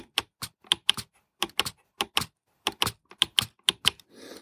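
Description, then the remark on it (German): A rapid series of sharp plastic clicks from a braille display's navigation bar being pressed right, left, up and down: about twenty clicks in irregular bursts, loud and crisp with no voices. “Also auch die klopft ziemlich die Module raus und jetzt gehe ich auch mal mit der Navigationsleiste.”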